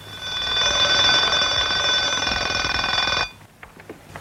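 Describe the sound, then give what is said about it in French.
A loud, continuous alarm clock bell rings steadily for about three seconds at 2 a.m., a dense metallic clatter, then cuts off abruptly, leaving faint rustling and small knocks. “Ah, c'est réveil à 2 h du matin.”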